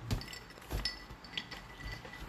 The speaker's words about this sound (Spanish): El sonido de hielos y de un dedo chupando es de